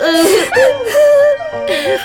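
A girl cries close by in wavering, high-pitched sobs and whimpers, several strained bursts in quick succession with brief catches of breath between them.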